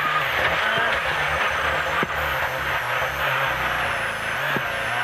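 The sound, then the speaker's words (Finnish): A rally car driven by Ikonen, spinning a donut, with its engine roaring continuously. A dense hiss of tyres on gravel and a couple of sharp knocks come along the way, loud throughout and with no talking. “Oi, siinä muuta tulee Ikonen pyörittää Donitsia.”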